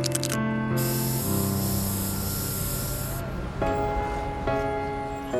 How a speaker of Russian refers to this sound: Баллончиком на стене он так и написал «Голос улиц».